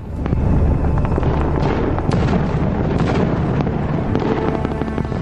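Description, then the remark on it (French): Loud, relentless battle noise on the First World War front in early 1918, heard at a French trench held by poilus: a deep rolling rumble of explosions with sharp cracks and bursts of gunfire popping through it, continuous for the whole stretch with no voices. “Comme vous pouvez l'entendre, les combats font rage.”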